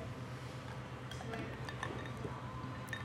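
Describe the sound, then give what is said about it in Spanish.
A few light, scattered clinks of ice cubes against a glass of Coca-Cola Zero with lemon, quiet, with a faint fizzing liquid and low background hum throughout. “Perdón, ¿oyes los hielos?”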